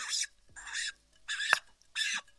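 Four short, hissy slurping sips of lemon water drawn from a water bottle, evenly spaced in a steady rhythm and fairly quiet, with brief silences between them and no talking.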